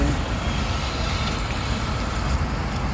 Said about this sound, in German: Die Straßengeräusche sind auch ein bisschen störend, ne?